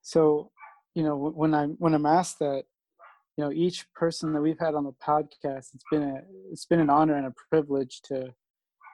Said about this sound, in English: sorry about my, sorry about my dog in the background